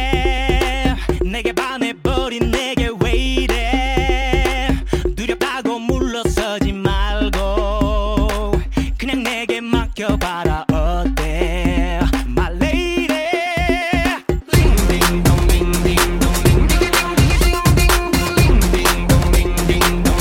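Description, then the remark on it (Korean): An upbeat, catchy K-pop dance track, ranked the number one earworm song, plays loud and alone, with a pounding beat, bright synths and sung vocals, shifting midway into a dense, driving chorus section. “귀벌레 현상 대망의 1위 곡이 자, 이 곡이 선정이 됐는데 사실 이 곡은 정말 조심해야 됩니다.”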